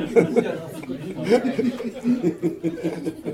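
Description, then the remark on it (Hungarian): A voice talks steadily on a phone call, a bit muffled and mid-level in loudness, with a few soft chuckles breaking in. “ah, csak valaki telefonál.”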